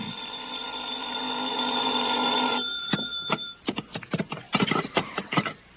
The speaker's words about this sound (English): I was still in bed when the phone rang.